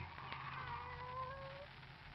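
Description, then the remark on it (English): A pet cat named Kitty gives one long, drawn-out meow that slowly bends in pitch, fairly faint against a steady low hum in the background. “Oh, it's you, Kitty.”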